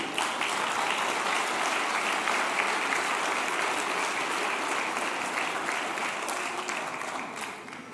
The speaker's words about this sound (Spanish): Denle un aplauso a Jesús por eso.